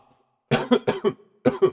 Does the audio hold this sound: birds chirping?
no